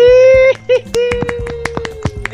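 One person claps alone indoors as farewell applause, about a dozen claps at an uneven pace, each sharp clap ringing with echo, while a steady sustained tone hums underneath.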